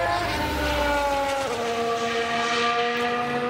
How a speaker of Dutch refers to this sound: Ja, iets minder dan een jaar en dan horen we dit geluid. De motoren van de Formule 1 op circuit Zandvoort, Wouter.